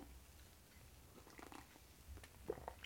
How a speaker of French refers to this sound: Excuse-moi, j'ai pris une bonne petite gorgée de, café.